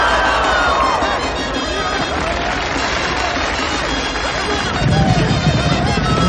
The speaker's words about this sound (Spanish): Un animal rezagado choca los cuernos contra otro al entrar al ruedo.